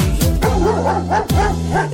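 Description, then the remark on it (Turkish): A dog barks loudly several times in quick succession, with short yipping, whimper-like edges, over a steady tonal background. “diye havlaşır çiftliğinde Ali Baba'nın.”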